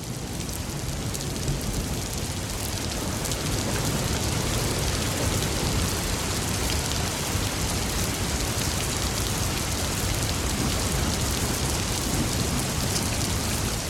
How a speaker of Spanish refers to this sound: Es este sonido que está aquí. bueno, hay varios. Este es uno de ellos. Se llama Brown Noise una hora. Lo pueden buscar en, en, SoundCloud.